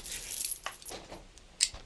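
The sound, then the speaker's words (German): A metal chain rattles and clinks in a short burst of bright, jangling sounds as a suitcase is chained to a scaffold, ending with one sharper metallic clink. It is fairly quiet, and no one speaks. “Ich kette den Koffer an.”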